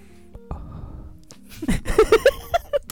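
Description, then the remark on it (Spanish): Breathing right up against the microphone for ASMR: after a low rumble, a run of about six quick, loud, slightly voiced breaths puff in and out, with no talking. “Y, respirando bien cerca del. Vamos a hacer una ASMR.”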